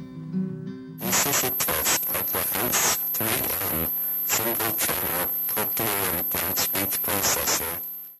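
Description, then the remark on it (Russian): A simulated rendering of how the House 3M Single Channel Implant, a single-channel cochlear implant created by William House and produced by 3M, sounded to its users: after a faint low hum, harsh, buzzy, noise-filled sound pulses in a speech-like rhythm for several seconds, loud and heavily distorted. “Вот как примерно слышали люди, которым установили этот имплант.”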